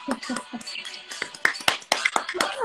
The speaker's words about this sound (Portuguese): Uma salva de palmas para nós